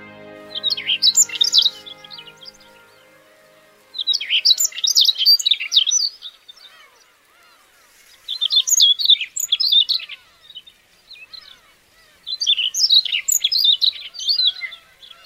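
A Siberian rubythroat, perched on a red beach rose flower on a small island 30 km off Hokkaido in the northern Sea of Japan, sings clear, warbling phrases in four separate bursts, each a couple of seconds long with short pauses between, with no talking.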